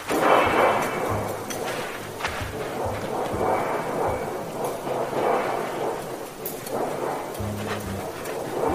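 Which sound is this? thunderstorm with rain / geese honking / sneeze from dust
thunderstorm with rain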